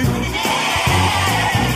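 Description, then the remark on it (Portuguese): Several voices imitate a sheep's bleat together on cue, as a group takes turns imitating animal sounds: a few loud, wavering baa sounds in quick succession, with no other talking. “Ele fez ovelhas que.”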